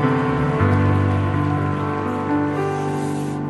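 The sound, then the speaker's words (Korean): A church audience applauds in thanks to God in a dense, steady wash of clapping that holds for several seconds, with sustained musical tones humming underneath and no voices. “우리 그 하나님께 먼저 감사의 박수 올려드리시겠습니다.”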